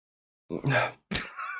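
human body sound, sneeze

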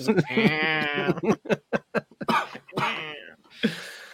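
human body sound, stifled cough

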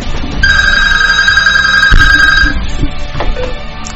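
signal or alarm, telephone ringing

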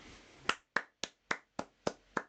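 crowd, a single hand clap

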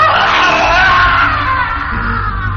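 sound effect, man screaming in fear

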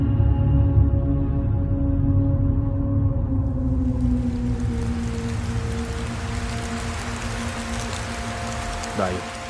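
nature, heavy rain falling

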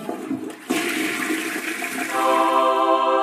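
household object, toilet flushing

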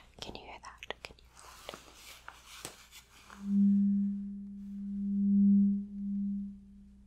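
medical sound, tuning

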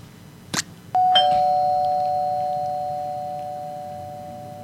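household object, doorbell ringing

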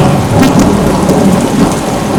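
nature, heavy rain pouring down

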